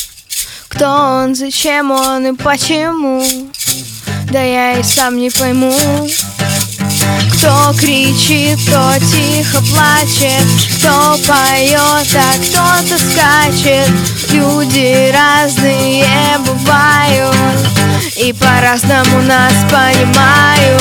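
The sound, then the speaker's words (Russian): A live band plays an acoustic version of its own song, written by its guitarist, with a lead vocalist singing in Russian over steady, rhythmic strummed accompaniment and a sustained bass line, loud and continuous throughout. “Первую песню, которую мы исполним, это будет собственное сочинение”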